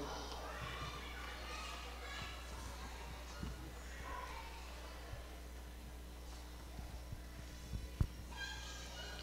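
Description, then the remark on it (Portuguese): A crowd of children playing and chattering during a city council session, many overlapping high voices at a steady moderate level over a low hum, with a brief sharp knock near the end. “Gostaria que eu pedir o pessoal só para controlar um pouquinho as crianças, que às vezes fica muito o barulho fica muito grande aqui.”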